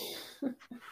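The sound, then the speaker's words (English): A couple of brief, muffled nasal snorts and blows as a man with a cold blows his nose in the background, over a faint background hiss. “So, if you can hear my boyfriend in the background blowing his nose, bless him, he's got a cold.”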